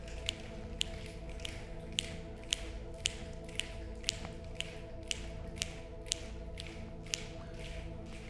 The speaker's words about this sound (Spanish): Nos decía él, en lo que usted hizo tres chasquidos con su dedo, 3 millones de personas murieron y se fueron al infierno.